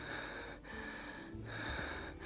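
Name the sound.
out-of-breath panting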